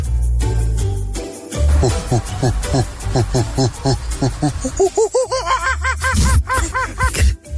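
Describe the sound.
A person imitating a monkey makes rapid, rising monkey-like hoots and chatters, starting with short rhythmic bursts and building into higher, looping whoops, loud.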